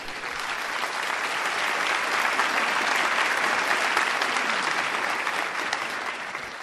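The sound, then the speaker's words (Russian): Sustained applause from a crowd in tribute to Nikolai Morozov for a program he staged: a dense, steady wash of many hands clapping at once, loud and even for several seconds with a slight swell in the middle. “То есть подобрать такую музыку и поставить такую программу такого уровня, ну вот, мне кажется, Николай Морозов прям достоин. Аплодисментов.”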